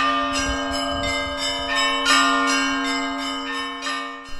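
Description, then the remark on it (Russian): Church bells, rung by a nun on a temporary belfry in a monastery bell tower using a set brought from the Glebova women's hermitage, peal in a rapid, steady series of strikes, bright metallic tones overlapping and sustaining, with a deep ringing hum beneath. No voices. “Временная звонница оборудована на монастырской колокольне из набора колоколов, привезенных из Глебовой женской пустыни, но мы говорили не только о колокольном звоне.”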